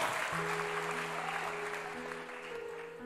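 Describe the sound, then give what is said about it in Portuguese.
A church audience claps steadily during a sermon in a dense, sustained wash of applause, with sustained low organ or keyboard tones holding underneath throughout. “Quem recebe esta palavra, aplauda, glorifica ao nome do Senhor.”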